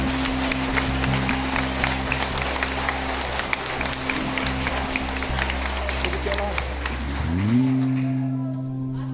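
An audience applauds Jesus in a dense, continuous wash of clapping over a steady low organ or keyboard drone that shifts pitch near the end as the applause fades.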